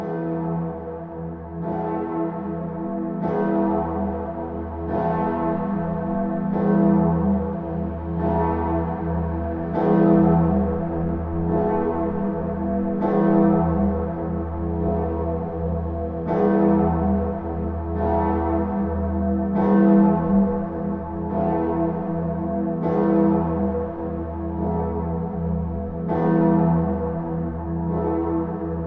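The Gloriosa, a large, deep church bell, tolls steadily at Christmas, each stroke roughly every three seconds, with a rich low hum and shimmering overtones sustaining between strikes. No voices are heard.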